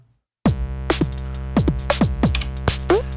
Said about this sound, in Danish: Nu ligger der bare en tone, som I kan høre. Prøv at høre pitch på.